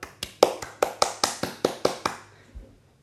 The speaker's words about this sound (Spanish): Aplaudid conmigo, por favor.